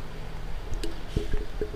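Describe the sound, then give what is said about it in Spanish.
Someone drinks water: a few soft, wet swallowing and gulping sounds at irregular intervals, quiet against a faint background hum, with no talking. “disculpen, necesitaba tomar agua.”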